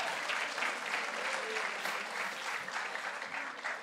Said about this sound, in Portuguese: Mas irmãos, para aplaudir o Senhor, mas irmãos,